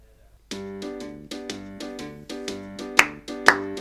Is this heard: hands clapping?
yes